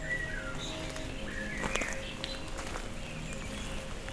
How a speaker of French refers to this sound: Je vous amène son nord du Cagir avec, pour seule compagnie, le chant des oiseaux,